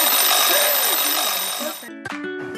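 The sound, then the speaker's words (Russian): A loud, bright alarm clock rings continuously for about two seconds, dense and buzzing, signalling that time is up, then cuts off into a brief tonal chime as a voice begins. “Знаешь, я снова тебя перебиваю здесь надо. И время-то вышло.”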